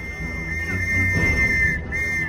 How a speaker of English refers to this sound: Then he uses his face microphone to broadcast the sound of a police whistle. But, but it's not just a loud whistle. He can make it like surround sound, so these bad guys now think they're surrounded by cops.